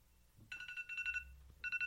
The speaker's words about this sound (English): Oh, that's my alarm going off.